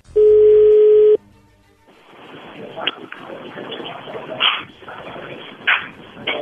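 A telephone call connecting: a ringing tone sounds once as a loud, steady, mid-pitched buzz lasting about a second, then gives way to a hissy phone line with faint muffled noises.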